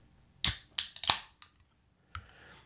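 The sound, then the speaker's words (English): A can of Longboat Pale Ale beer cracked open in front of the microphone: a few sharp metallic clicks and a loud pop with a brief fizzing hiss, then a softer click after a short pause. “maybe I'll steal a page out of the Argos fan cast uh, playbook and and open this in front of the mic because it's a gorgeous sound”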